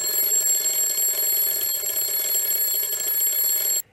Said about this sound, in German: Pass auf, äh, wir haben ja nochmal so eine andere, so eine altmodische Wecker-Variante.